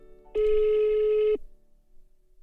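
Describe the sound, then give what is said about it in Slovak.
A single steady ringback tone of an outgoing phone call sounds for about a second, clear and fairly loud, then cuts off, leaving quiet background with no answer as the person called does not pick up. “No tak ja ju už volám, ale tak ideme hrať.”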